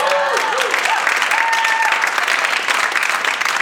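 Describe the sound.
An audience applauds loudly and steadily for several seconds, a dense crackle of many hands clapping at once, with a few voices and cheers blended into the noise.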